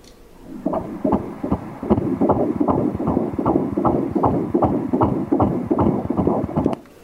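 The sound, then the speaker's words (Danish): A fast fetal heartbeat heard through an ultrasound Doppler, the heart about the size of a grain of rice, beating at 153 beats per minute, a normal rate; a steady rapid whooshing pulse of about twenty beats, loud, with no talking over it. “Det slår hurtigt, sådan et fosterhjerte.”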